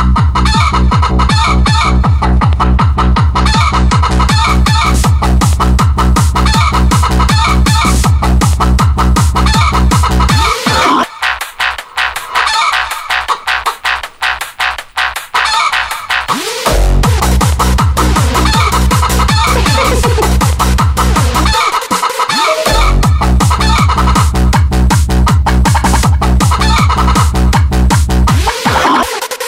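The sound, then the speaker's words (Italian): A loud techno version of a chicken song, built on rhythmic chicken clucks and a rooster crow over a pounding steady beat, with a brief breakdown midway before the thumping groove returns. “ti posso chiedere di mettere subito la canzone, così facciamo un fuori programma, non è in scaletta, la canzone della, della gallina, che, la versione techno se ce l'hai che dà una spinta al programma.”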